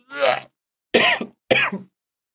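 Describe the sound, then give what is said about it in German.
Three coughs, each a harsh, fairly loud burst with a short pause between them, the last two coming in quick succession. No talking is heard. “Alter, Moment, ich hab Trenn, äh, Husten.”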